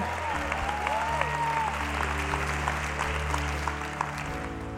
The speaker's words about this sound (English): Let's clap it up for them.